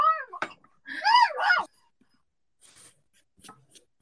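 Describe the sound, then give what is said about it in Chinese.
A pet dog barks in a short burst of two or three sharp, high-pitched yelps, then falls quiet. A few faint scuffing clicks follow in the silence. “哎呀，我的狗在叫。”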